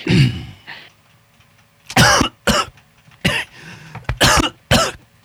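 A fit of harsh, choking coughs, about six sharp bursts in uneven succession with a rough throat-clearing start, loud and on its own, from someone who breathed liquor down the wrong tube.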